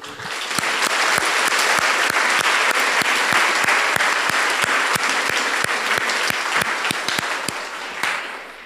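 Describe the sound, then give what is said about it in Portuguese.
An audience applauds Jesus steadily for several seconds after a sermon's call to praise, a dense wash of many hands clapping with a few sharper claps standing out, sustained and fairly loud before tapering slightly at the end. “Vamos dar aplaudir Jesus.”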